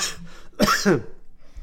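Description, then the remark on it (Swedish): A short cough, two quick harsh bursts in a row, preceded by a faint breathy sound and followed by quiet. “han är inte förkyld, han är bara trött. Ja, sitta och hosta.”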